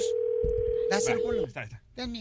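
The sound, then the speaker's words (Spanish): A steady, unbroken telephone tone hums for over a second, like a dial or ringing tone on a call, while voices talk over it; then it cuts off and speech continues alone. “Ay, disculpe, le estoy marcando de, un de otro teléfono porque la pila se me está muriendo.”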